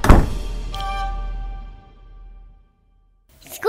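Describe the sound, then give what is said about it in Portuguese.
A heavy door slams shut with a deep, booming thud, then a metallic ringing resonance lingers and slowly fades. A brief faint scrape follows near the end, with no voices. “E tu entra na porta atrás do, do teu colega. E a porta se fecha.”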